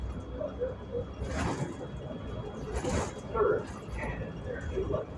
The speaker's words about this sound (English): What the fuck is that? Somebody banging on the door. Somebody's banging on the door.